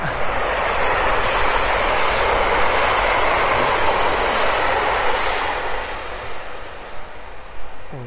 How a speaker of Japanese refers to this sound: 結構電車沿いを今歩いてるので 外の雑音が結構、ね、あの耳にキンキンになるかもしれないですけど、ね、あらかじめご了承ください。